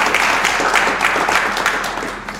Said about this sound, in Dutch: krijg je gewoon applaus.